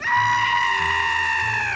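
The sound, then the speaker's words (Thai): A monster, the mosquito, lets out one loud, shrill, sustained scream as smoke filling a girl's house hits its face, lasting almost two seconds, holding a steady piercing pitch before sliding down and breaking off. No one speaks. “ควันที่ลอยคละคลุ้งอยู่ในบ้านของเด็กสาวประทะเข้ากับหน้าของยุงมันได้กรีดร้องเสียงดังลั่น”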